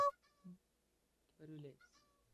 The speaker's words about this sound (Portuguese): Não, esse barulho eu conheço. Isso, é Você é, conhece? De... Isso é do ICQ.